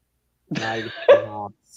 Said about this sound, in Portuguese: Peraí, deixa eu tossir.